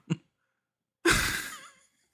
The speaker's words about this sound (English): You, I was yawning. I was, I was more worried about the yawn, honestly.